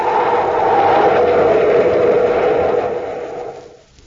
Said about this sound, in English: Hey, Commander, you hear that? It's a ship. Coming in for a landing on top of the bluff.